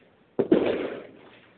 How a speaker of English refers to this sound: You hear the fireworks going off because in Philly, we crazy like that. It's past the 4th of July, we still don't care.